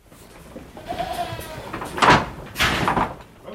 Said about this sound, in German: Gerade bekommen die Milchziegen ihre bescheidene Ration Hafer.